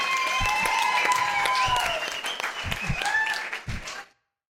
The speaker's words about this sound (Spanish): Qué gusto ver a mucha gente. Un aplauso